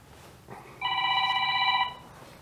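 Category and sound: signal or alarm, phone ringing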